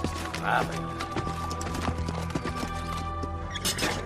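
Horse hooves clip-clop in a steady, fairly quick rhythm of sharp knocks, moderately loud over a continuous humming, tonal background.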